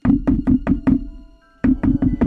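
Solid knocking on a door: five firm raps in a steady rhythm, a brief pause, then four more. The knocks are close and loud, with no voices.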